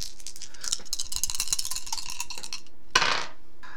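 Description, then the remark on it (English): Dice rattle and clatter across a hard table for a couple of seconds, a quick run of bright clicking taps, then a final sharp knock as they settle. The dice are rolled as 3d8 for a third-level Cure Wounds spell. No one speaks. “Okay, so first let me roll the dice.”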